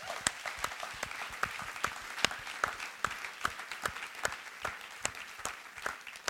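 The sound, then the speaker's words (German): An audience applauds the Act team steadily, with a dense wash of many hands and some sharper individual claps standing out at a fairly even pace, moderately loud throughout with no talking. “Ich komme gerne mal am Act-Team einen Applaus.”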